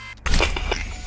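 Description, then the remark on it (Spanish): A quick mechanical click and snap, like a watch case being clicked open, followed by a brief rattling scrape with no voices. “Hay que abrirlo.”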